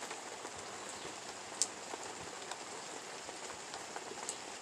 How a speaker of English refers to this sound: I love having the spring rains.